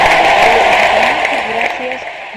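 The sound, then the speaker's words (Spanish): An audience applauds a guest to thank them for their participation, a dense, steady wash of clapping for a couple of seconds, with a few voices calling out underneath, tapering off slightly toward the end. “Este, y bueno, eh, te, damos un aplauso acá, puede ser un aplauso.”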